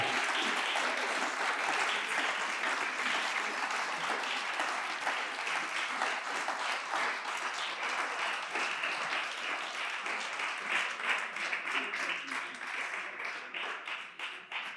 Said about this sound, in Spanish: Junte sus palmas, dele fuerte el aplauso al Señor.